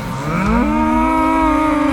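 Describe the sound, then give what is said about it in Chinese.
A bull gives a loud, drawn-out moo that starts low, climbs in pitch, then holds steady as a rich, buzzing bellow for about two seconds, with no talking. “她这时候只是挥挥手，用魔法变出了几十头的公牛。”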